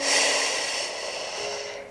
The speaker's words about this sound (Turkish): Şimdi kocaman büyük bir nefes alalım. Sadece bu kadar. Ve verelim coşkuyla.